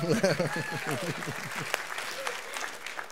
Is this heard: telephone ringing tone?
no